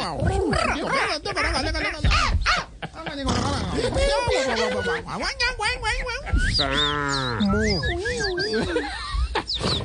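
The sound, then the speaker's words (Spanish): A person, one of a group of elderly people imitating animal noises, imitates a sheep's bleat with a series of wavering, quavering vocal cries, fairly loud, with one long trembling bleat near the end. “se pusieron a imitar los ruidos de los animales.”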